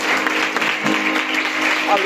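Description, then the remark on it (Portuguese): An audience applauds Jesus in a steady, dense wash of clapping that holds at an even loudness throughout, with a faint murmur of voices underneath. “Quem está sentindo a presença de Deus, aplauda Jesus, ele merece.”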